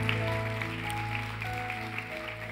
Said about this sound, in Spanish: Así que dale un fuerte aplauso a Dios porque tú eres más que vencedor.